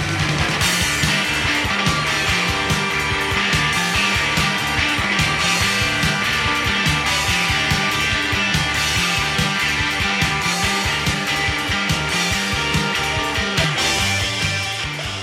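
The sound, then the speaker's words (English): A loud, driving punk rock song with a dirty, distorted harmonica snarling over a thumping bass line and crashing drums, playing continuously at full energy. “Harmonica, um, dirty, distorted harmonica. It feels a bit yeah, ….”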